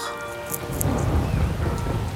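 Steady rain pours down with a deep, rolling rumble of thunder underneath, filling the scene with dense low noise and scattered bright drips and splashes throughout.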